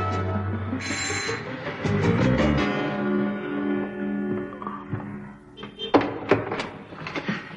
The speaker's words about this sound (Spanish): Llega ante una puerta de un piso donde hay una placa en la que puede leerse Congelados de Barcelona, con Deva. Tras leerlo llama al timbre y una joven de pelo moreno le abre la puerta.